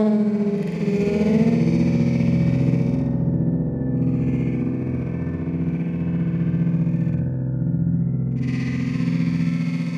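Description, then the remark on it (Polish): A mobile-phone recording of a large creaking gym door, slowed down and stretched into a loud, continuous low drone with a gritty, groaning texture, rising and dipping slightly in tone over about ten seconds, with no voices. “Bo na przykład telefonem komórkowym nagrywała jakieś wielkie, skrzypiące drzwi do sali gimnastycznej.”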